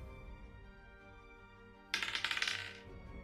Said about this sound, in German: Äh, ich würfel Athletics gegen die Fortitude vom Gegner. Jawohl. Genau, das mache ich jetzt mal.